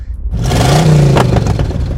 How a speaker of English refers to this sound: The coalossal shakes its bulky frame, the low rumbling of its engine like interior grinding and turning incessantly with all the subtlety of an under oiled gear